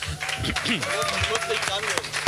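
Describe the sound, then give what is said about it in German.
A short burst of audience applause for the evening's guest, Mehmet Kutulusch of the Hamburg Tatort, a steady patter of many hands clapping for a couple of seconds, with voices talking and calling out over it. “Kleiner Applaus für unseren Gast bitte.”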